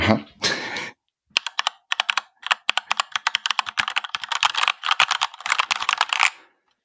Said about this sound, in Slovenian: Jaz sem zdaj pokazal, kako zveni rjava tepkovnica. Poslušajte to.